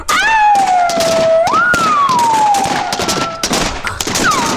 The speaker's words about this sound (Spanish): ¡Paren! ¡Paren! El Chemo y su tropa aprovecharon para disparar toda su artillería.